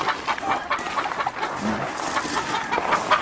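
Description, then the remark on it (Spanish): Half-and-half roosters kept as breeders clucking in a busy, continuous chorus of short, overlapping calls at moderate volume, with steady farmyard noise filling the background and no clear speech. “Eh, esos gallos son mitad mitad, ¿estos cómo lo das?”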